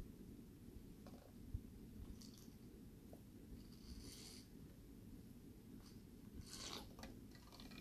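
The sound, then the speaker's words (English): Quiet sips of ice water: a few soft slurping bursts spaced a second or two apart over a low, steady rumble, with no talking. “a sip of ice water.”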